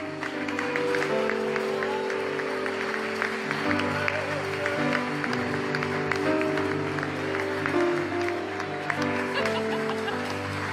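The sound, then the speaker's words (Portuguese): An audience applauds the Lord steadily for about ten seconds, a dense, even wash of clapping over sustained keyboard chords, with some scattered laughter or voices mixed in. “Aleluia, você pode aplaudir ao Senhor.”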